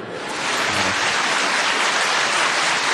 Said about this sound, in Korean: 고백할 때, 에, 한번 할 때, 수지에서는 여기 분당까지 들리도록 한번 박수를 치세요.